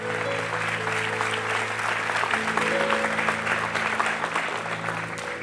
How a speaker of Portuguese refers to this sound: Aplauda ele bem forte.